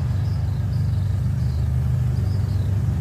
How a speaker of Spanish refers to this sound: No, y mira los carros pasando, que no saben el peligro. Él, el peligro que acecha a toda esa gente que está ahí.